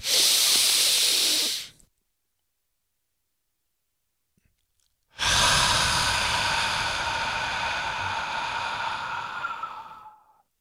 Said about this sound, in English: And we're going to do uh, deep inhale. We're going to hold for a second, and you will hear me when I exhale. And our exhale is going to be longer than our inhale.